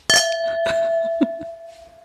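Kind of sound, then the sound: household object, wine glasses clinking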